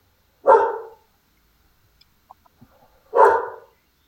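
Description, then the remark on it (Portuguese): A dog barks twice, loud, with about two and a half seconds of near-silence between the deep barks and only a few faint clicks in the gap. “Esse cachorro é meio louco.”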